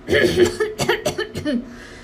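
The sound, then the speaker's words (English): A voice reading the children's book Great Big Bear Has a Great Big Cold by Sierra Spencer imitates Great Big Bear coughing with a cold: a run of rough, throaty coughing bursts in quick succession, fairly loud, fading at the end. “He sneezes, ah chew. He coughs.”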